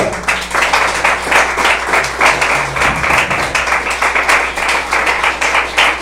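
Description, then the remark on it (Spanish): An audience claps hands steadily for several seconds as an offering of applause to the Lord, a loud, dense patter of many overlapping claps with a loosely rhythmic pulse and no talking over it. “Para ver la ofrenda de palmas al Señor.”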